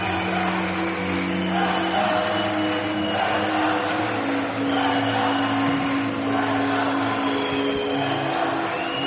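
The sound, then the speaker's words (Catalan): A large arena crowd chants a team name in unison as the team comes out, a loud, unbroken roar of many voices holding steady sung tones for the whole stretch. “Mira, surten, atenció, Ara començaran els crits de res a resa.”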